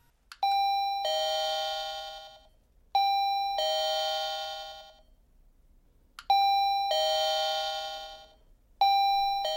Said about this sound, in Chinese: 下班后，主人公去找 K，他按了好几次门铃，里面却毫无动静。